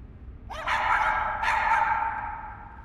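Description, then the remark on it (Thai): Several dogs bark loudly, their cries coming in two drawn-out, overlapping bursts that ring on and slowly fade, with no talking. “สิ้นเสียงของผม เด็กทุกคนต่างส่งเสียงเห่าดังลั่น”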